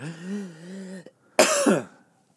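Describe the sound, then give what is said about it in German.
A strained, drawn-out voiced croak gives way, after a short gap, to a single harsh, forceful, loud cough from someone who has just choked badly while slurping a drink. “Bei meinem Gag schlürfen habe ich mich ganz doll verschluckt.”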